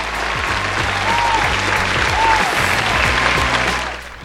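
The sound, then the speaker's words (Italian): A crowd applauds loudly and steadily for a few seconds, dense clapping filling the space before tapering off at the end, with faint voices mixed in beneath it. “Eh, io direi un altro applauso allora.”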